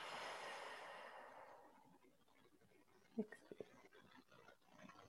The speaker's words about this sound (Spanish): Simplemente darnos cuenta de nuestra respiración, inflemosla otra vez. Inspiro.